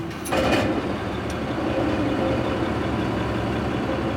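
A loud, steady mechanical drone of a ferry's large engines running in the ship's engine room while the engines' oil levels are checked, filling the space with a continuous low rumble and hum, with a brief hiss near the start and no voices.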